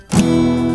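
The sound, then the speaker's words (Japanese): A single E major guitar chord, fretted at the first fret of the third string and the second fret of the fourth and fifth strings, is strummed once across all strings. It sounds bright, with the strings ringing out together and sustaining evenly for the rest of the moment without any voice. “そして2フレットの4弦と5弦を押さえて、これは全部弾きます。”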